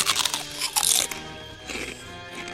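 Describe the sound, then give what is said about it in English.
Loud crunching of crispy black legumes, a few sharp bursts of chewing in quick succession, then a softer munch toward the end, with no voices. “Crunchy, crispy black legumes harvested from precious indigenous land with no proceeds going to the people who live there.”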